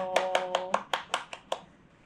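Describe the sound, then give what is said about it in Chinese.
A person claps their hands about eight times in a quick, steady rhythm, the sharp claps ending after roughly a second and a half. A faint held vocal tone sounds beneath the first few. “最近呢，我把一年份的第一年份的五年日记写完了，很棒，帮自己拍拍手。”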